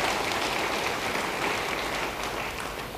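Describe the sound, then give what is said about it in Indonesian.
A large audience applauds together for God during a sermon, a dense, steady wash of many hands clapping at once, sustained and fairly loud throughout, fading only slightly toward the end, with no voices standing out. “Yang mau beri tepuk tangan bagi dia, haleluya.”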